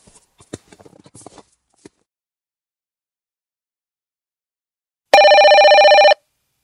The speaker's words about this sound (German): Um fünf Uhr klingelte das Telefon.